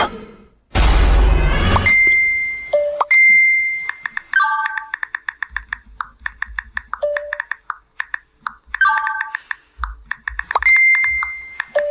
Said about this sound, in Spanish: Bueno, eh, estamos escuchando soniditos de WhatsApp.